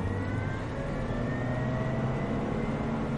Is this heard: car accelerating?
yes